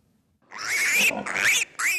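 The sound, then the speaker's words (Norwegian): A pig grunts and squeals loudly in three quick, harsh bursts with short breaks between them, no other sounds around. “Kjøttsamvirket Nortura har brukt 20 år på å lage en ny kryssing av grisen.”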